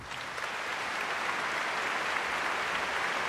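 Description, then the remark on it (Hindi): A large hall audience applauds as Raj Kapoor is announced for the Dadasaheb Phalke Award on 2 May 1988, a dense, steady wash of many hands clapping at once that stays loud and unbroken throughout, with no voices rising above it. “तालियों से हॉल गूंज उठा सारी नजरें राज साहब पर थी तालियां बंद ही नहीं हो रही थी”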